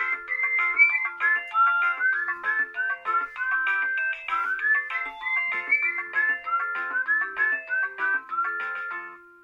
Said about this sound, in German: Und da der Bewegungsmelder aktiv ist, löst der natürlich aus. Und das macht er jetzt die ganze Zeit, weil ich in den Bewegungsmelder hineingucke.